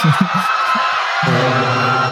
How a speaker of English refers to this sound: You hear the crowd panic.